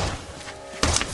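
A single heavy kick strikes a solid door reinforced with a Door Sentinel near the end, a sharp impact with a short rattle after, and the door stays shut. Before it there is only a low, steady background hum.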